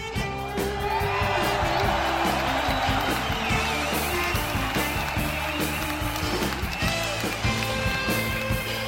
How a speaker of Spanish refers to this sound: a quienes les mandamos también público un fuerte y caluroso aplauso. Venga.